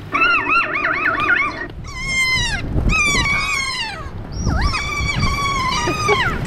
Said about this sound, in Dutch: Dit is een lachende vogel, een papegaai.